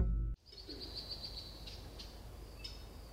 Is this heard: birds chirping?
yes